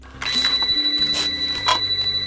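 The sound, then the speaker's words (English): A telephone rings with a steady, high electronic tone and repeated bright bursts that pulse every half second or so, over a low, shifting drone. No one speaks. It is a film scene in which a young woman played by Drew Barrymore, home alone, gets a call from an unknown person. “She then gets a phone call from an unknown person.”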